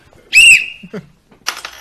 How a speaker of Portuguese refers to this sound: Apareceu. Apareceu o apito. Minha mulher comprou um pra mim.